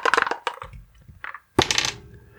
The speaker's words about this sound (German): Und dafür muss ich dann einmal würfeln, weil Zauberer lernen Zauberer nämlich zufällig.